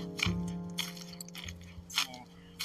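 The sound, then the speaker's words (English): Footsteps crunch through a patch of dry leaves in a few irregular, rustling bursts, with a chainsaw droning steadily low in the background. “There's that patch of leaves again.”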